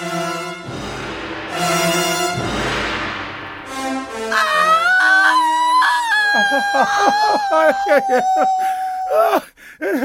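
A woman cries out in labor pains while giving birth for the first time, strained groans building into loud, drawn-out screams and a long wavering wail, continuous for about ten seconds.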